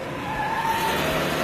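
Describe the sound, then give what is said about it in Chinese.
A car carrying a boy's whole family tears off as they flee, with a sustained whining tire squeal over a loud engine roar, steady and unbroken for the whole moment, with no voices. “就在这时，一个男孩全家人坐上汽车逃跑了。”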